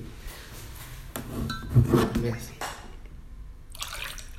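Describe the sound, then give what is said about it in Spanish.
Someone takes a drink of water, with soft liquid sloshing, a gulp or two and the light clink of a glass or bottle against a quiet background. “hoy tengo agua porque la otra vez tenía la boca re seca.”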